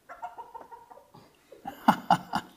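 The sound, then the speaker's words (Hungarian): Fowl, a rooster with a large comb and a turkey, cluck in a soft run of calls that builds into three loud, rhythmic squawks at the end. No one speaks. “Itt a kakas, a pulyka.”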